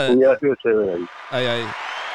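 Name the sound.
applause sound effect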